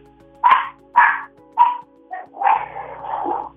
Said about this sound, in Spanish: Y que mi perrita ladra cuando yo le gritaba. Y tú la escuchaste pues, a mi perrita.